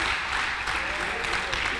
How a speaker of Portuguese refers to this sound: E se você crê, Aplauda Ele nessa noite.